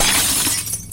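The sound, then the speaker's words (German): Glass shatters in a kitchen in a sharp, bright crash, with a burst of tinkling fragments that quickly thins out. It's fairly loud, with no voices. “Ihr hört es klirren.”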